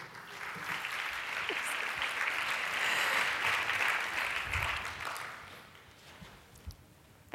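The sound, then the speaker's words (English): An audience at a Society of Dermatology Physician Assistants lecture breaks into sustained applause welcoming a speaker, a dense, steady wash of clapping that holds for several seconds before gradually thinning and fading out. “I'd like you to give a big round of applause to a good friend of mine”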